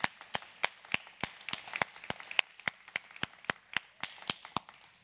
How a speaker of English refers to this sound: All right, children, you are dismissed to your class. Can we bless them with a big hand clap? Come on.